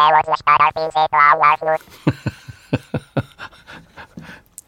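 A warbling alien-speech sound effect: a burst of high, wobbling, pitch-bent voiced syllables, followed by a rapid series of choppy, gurgling blips and clicks that trail off.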